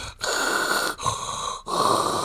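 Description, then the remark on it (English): A voice imitates the heavy, labored breathing of a man in hospital for weeks with tubes in him after an explosion: three long, harsh, rasping breaths in a steady rhythm, separated by brief pauses, loud. “And he's in the hospital for like weeks with tubes in him. He sounds like”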